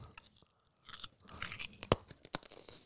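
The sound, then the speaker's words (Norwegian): Crunching on a raw carrot: a run of crisp, snappy bites and chews over about three seconds, with a couple of sharp loud cracks. No one speaks. “Oi, her hører vi knasing.”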